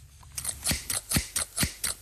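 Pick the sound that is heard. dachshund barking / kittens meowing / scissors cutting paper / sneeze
scissors cutting paper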